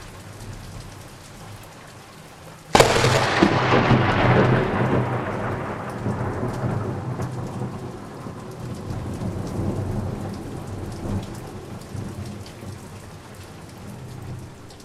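Steady heavy rain hisses throughout as a sudden storm strikes at sea just outside a harbour, battering a boat; a loud thunderclap cracks around the third second and rolls on in a long, fading rumble beneath the downpour.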